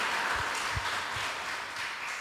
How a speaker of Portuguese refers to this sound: Vamos aplaudir o Senhor por essa vitória poderosa em nome de Jesus.